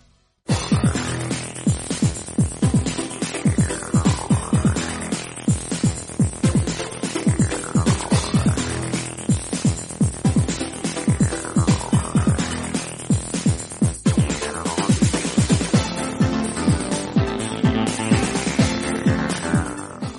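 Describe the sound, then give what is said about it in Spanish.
An electronic soundtrack melody from the Armored Core video game series plays steadily, with a pulsing, throbbing bass line and repeated rising and falling synth sweeps over a dense, loud instrumental mix, with no one speaking. “Si al escuchar esta melodía, vuestro cerebro ha liberado grandes dosis de dopamina, es que al igual que yo, perdisteis la cuenta de la cantidad de horas que estuvisteis escuchando este tema u otros similares mientras os dedicabais a construir vuestro”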